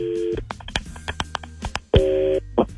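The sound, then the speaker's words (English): Telephone dialing tones as a phone call is made: a steady dual-tone beep, then a rapid string of short keypad tones punched in quickly, followed by another long steady tone, clear with no voices. “Let's make the phone call.”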